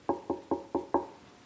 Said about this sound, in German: Der Freund geht also los, mitten in der Nacht. Es ist noch dunkel und es ist still draußen. Er klopft vorsichtig.